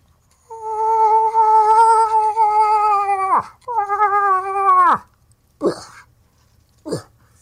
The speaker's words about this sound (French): T'as-tu mis, ta piste d'orignal,